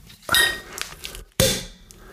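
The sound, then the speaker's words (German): A bottle of Rotkäppchen Chardonnay extra trocken sparkling wine being opened: two sharp, bright bursts about a second apart, each followed by a brief glassy, ringing clink that fades quickly. No one speaks. “Jetzt knallt's.”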